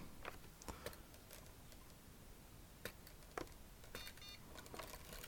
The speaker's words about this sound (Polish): Słyszeliśmy sygnał, na monitorze na chwilę ukazuje się napis wyłączony, on stopniowo zblednie i zniknie. Niestety nie ma możliwości wyłączenia e, sygnału dźwiękowego ani jego ściszenia.